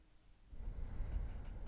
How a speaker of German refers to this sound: Man hört ihn nur atmen.